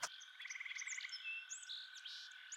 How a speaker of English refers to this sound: Agreed because I stop and listen now that it's been pointed out to me. You uh, also hear birds and insects chirping. It seems like nature is returning to this area rather quickly